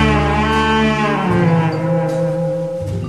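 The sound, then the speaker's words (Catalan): A dramatic, crime-thriller style passage from the soundtrack of the film Black Lizard (El lagarto negro), with loud, sustained low brass-like chords that shift pitch a couple of times, rich and steady throughout, with no voices. “i ara us poso una de les cançons que sona així de policial.”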